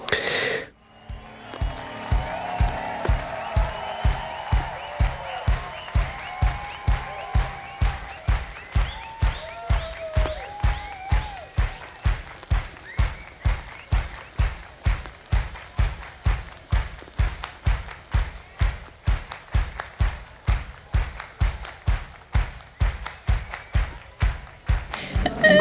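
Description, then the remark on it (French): A live audience claps together in a steady, even beat, about two sharp claps per second, loud and sustained throughout, with some voices and sung tones under the rhythm early on, from a live music recording. “Euh, du coup, là, je, suis plus portée par les applaudissements ou la façon dont les, euh, les claps euh, rythment l'espace, scandent, plus que la musique.”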